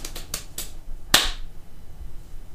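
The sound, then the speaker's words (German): A handful of sharp hand claps, four quick lighter ones followed by a pause and a single louder, crisper clap, with no talking over them. “Ich klatsche aber so gerne.”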